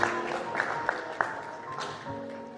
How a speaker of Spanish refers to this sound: Más fuerte el aplauso. Las Corrientes.